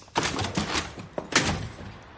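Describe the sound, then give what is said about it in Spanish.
A door being opened, with a short run of clunks and rattles from the handle and latch, fairly loud, followed by a final thud. No one speaks. “Vas a abrir la puerta.”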